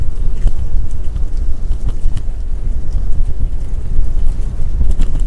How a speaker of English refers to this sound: Yeah, it's getting windy here. We got a little monsoon coming up. starting to get a little, a little dicey here.